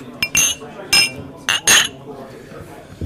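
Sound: glasses clinking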